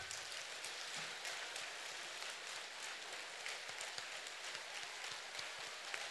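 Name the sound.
audience applause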